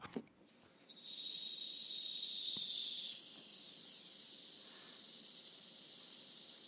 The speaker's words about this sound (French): parce que le sable grignote le verre de l'intérieur alors nous avons fait toute une installation dans le studio de France Inter pour écouter le son du sablier alors on y va retournez le sablier Simon on écoute le son qui vous résume